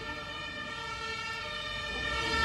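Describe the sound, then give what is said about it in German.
A fire engine siren wails steadily, its bright layered tones sustained throughout and swelling slightly louder toward the end, with a low rumble of traffic underneath and no one speaking. “genau, die Feuerwehr meldet sich.”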